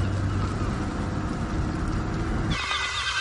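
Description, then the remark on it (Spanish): A car drives along with a steady, fairly loud hum of engine and road noise; near the end the low rumble eases off and a thinner, higher whine takes over. “Jesús viaja en el asiento trasero del coche. Pedro conduce.”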